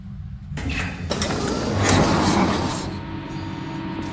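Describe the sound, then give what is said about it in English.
A heavy door grinds and rumbles shut with a mechanical scrape, followed by a few sharp clanks as a lock or latch engages, the low rumble lingering before fading. “The door locks behind us.”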